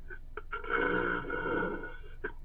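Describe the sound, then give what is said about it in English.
Air being gulped down into the stomach: a rough, throaty croak held for about a second and a half, framed by a few short glottal clicks before and after, with no talking. “This is the air going into my stomach”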